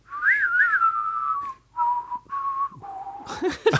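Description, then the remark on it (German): People whistle a song in a few melodic phrases with short pauses between them, clear, breaking into breathy, noisy sounds at the very end. “Und diesmal pfeifen wir einen extra Song.”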